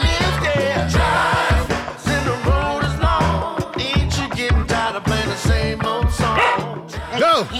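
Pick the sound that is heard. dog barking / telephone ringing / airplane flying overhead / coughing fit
dog barking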